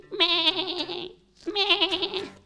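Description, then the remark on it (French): A person imitates a sheep with two drawn-out, wavering bleats separated by a short pause, voiced fairly loud with a nasal, quavering tone. “Toi, t'es le pro des brebis en plus.”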